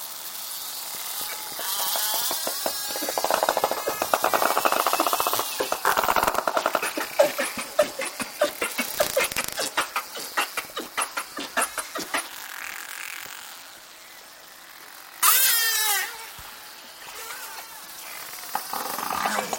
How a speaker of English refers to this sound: They use a series of clicks for echolocation to find prey and communicate. This dolphin pod was recorded in Milford Sound, New Zealand, by Dr. Oliver Boisseau for the British Library ….